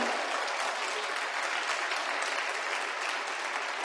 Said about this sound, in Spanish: De un aplauso al Señor por esta verdad.